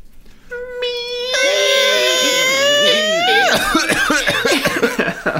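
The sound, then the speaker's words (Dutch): A loud, drawn-out creaking groan with a whiny, wavering pitch as a sound vault is opened gives way to a burst of rough, rapid coughing sound effects from the vault, several hacks in quick succession. “Zelfs de kluis die hoest.”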